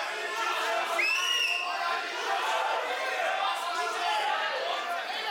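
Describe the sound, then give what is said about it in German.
A large outdoor crowd of thousands protesting against a ceasefire on the main square of Yerevan, Armenia, roars steadily, with many voices shouting and chattering over one another and a brief raised cry standing out early on, the whole din dense and continuous. “Was Sie hier hören, sind die Proteste in der armenischen Hauptstadt Erivan.”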